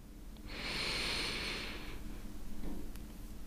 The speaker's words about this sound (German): einmal mit mir gemeinsam ganz, ganz tief einatmen.